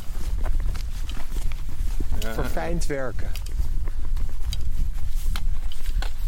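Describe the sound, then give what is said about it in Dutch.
Horse hooves clip-clop along a path in a steady, repeated rhythm, fairly loud against outdoor background noise, with a man briefly speaking partway through. “Paarden heb je hier.”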